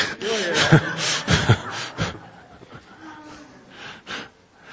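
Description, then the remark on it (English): An audience draws several deep, audible breaths in a loose, uneven rhythm, airy, with softer murmuring and breathing trailing off toward the end. “Are you breathing?”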